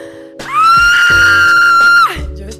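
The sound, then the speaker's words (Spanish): A woman lets out a single loud, sustained high-pitched scream of excitement lasting about a second and a half, clear, with no talking over it. “¿Qué te dice mi grito?”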